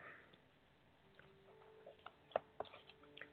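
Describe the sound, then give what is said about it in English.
Cards being shuffled by hand, heard as a scattering of soft, crisp flicks and taps that grow sharper partway through, quiet, with no talking. “Shuffling.”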